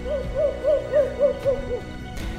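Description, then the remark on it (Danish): An owl hoots in a quick, even series of about seven short, mellow notes, clear, with no voices present. “For eksempel store havørne med hvide hoveder og gule næb, og uler med kugle runde øjne.”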